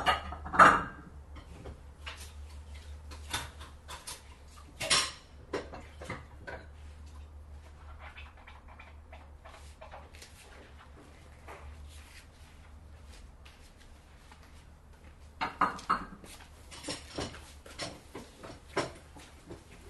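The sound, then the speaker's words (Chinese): Bowls and chopsticks clink and tap in irregular bursts as dishes are washed, with a few sharper knocks standing out, over a steady low hum. No one speaks. “我喜欢那种碗筷碰撞，还有水叮叮当当的声音。”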